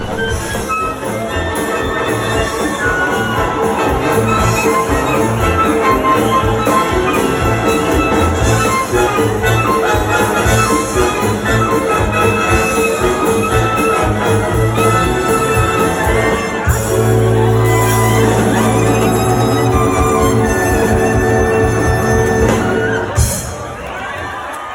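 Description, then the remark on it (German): A live band, a new project of the event organizers, plays a loud, steady piece with a driving beat and sustained tones, a crowd murmuring and cheering around it, before the music cuts off near the end. “wir haben sie kurz gehört, die Kapelle gefällt mir.”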